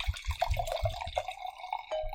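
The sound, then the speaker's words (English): Chilled wine with Sangiovese in it glugs and splashes as it's poured into a glass, with a rising ringing tone as the glass fills. Fairly quiet, with no voices over it. “Mmm, wine. Pour me some.”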